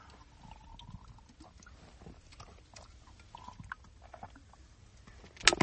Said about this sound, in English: So, uh, if you got them, drinking bottoms up. Cheers, everybody.